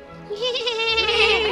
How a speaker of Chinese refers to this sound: 羊群欢呼起来